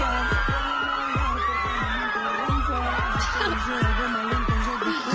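Hundreds of young local fans scream and shriek together in Plaza Botero in Medellín as a singer leaves his house, a dense, high-pitched roar that never lets up, with a steady rhythmic thumping pulsing underneath throughout.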